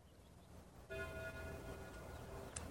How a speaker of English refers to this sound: At that moment, the church bells began to ring. The sound reached his ears. Above the sounds of the wind, and he stood there listening to the bells.